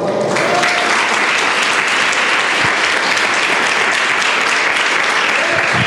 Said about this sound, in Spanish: ¿Cuántos decimos amén? ¿Cuántos decimos gloria a Dios? ¿Cuántos le podemos dar un aplauso al Señor, por favor?